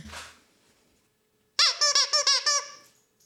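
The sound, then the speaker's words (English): A squeaky dog toy squeaks in a quick burst of about six rhythmic, high-pitched squeaks, fairly loud, following a brief soft noise and a pause of near silence. “If we don't have a click, we could have a squeak, couldn't we?”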